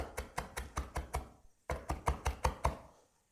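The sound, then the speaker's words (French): A knife coarsely chops coriander leaves quickly and steadily on a cutting board, two bursts of about six and seven sharp strikes separated by a short pause, with no talking. “Je repasse juste un petit coup sur les feuilles qui sont quand même un peu entières chez moi.”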